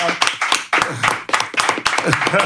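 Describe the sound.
A small group claps steadily throughout, a dense patter of sharp hand claps, close and fairly loud, with voices calling out over the applause.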